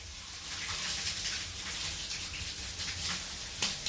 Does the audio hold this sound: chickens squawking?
no